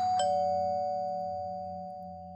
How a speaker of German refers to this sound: Das Geräusch der Klingel ließ mich aufspringen. Wer konnte denn schon um diese Zeit?